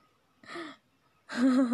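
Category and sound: human body sound, panting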